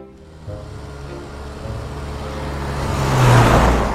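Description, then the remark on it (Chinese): A car turns off the highway into a dense forest and drives along a very narrow but smooth asphalt road, its steady low engine rumble growing louder and rougher toward the end as road noise swells, with no voices. “汽车岔出公路，钻进密林，在一条很窄但十分光滑的柏油路上跑。”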